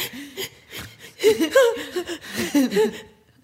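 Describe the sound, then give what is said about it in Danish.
A voice imitates ragged, gasping breathing: a run of quick, strained inhales and whimpering exhales, moderately loud, rising to a burst of harsher gasps before trailing off. “Pludselig lyder din vejrtrækning sådan her.”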